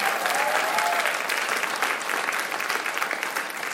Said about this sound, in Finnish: Annetaan vielä kaikille suhen pastoreille isot aplodit.